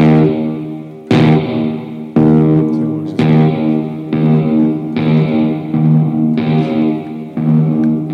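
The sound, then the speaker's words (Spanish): An electric guitar strums chords about once per second while reverb is mixed in up to 100%. Each chord rings into a longer, washier tail as reverb builds, so the playing seems to drift farther away. No voices. “Y conforme voy metiendo rever la guitarra se va alejando.”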